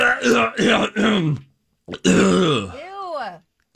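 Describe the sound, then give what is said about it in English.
A person clears their throat: three rough, voiced bursts in quick succession, a short pause, then a longer gravelly clearing that trails off into a sliding groan. “hit my cough button, didn't I? Oh, dang it, I didn't.”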